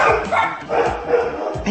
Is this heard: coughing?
no